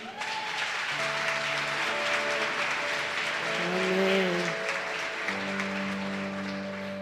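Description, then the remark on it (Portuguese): A church audience bursts into sustained, dense applause for Jesus lasting several seconds, steady and loud throughout, while sustained organ-like keyboard chords hold beneath the clapping. “Aplauda Jesus por isso.”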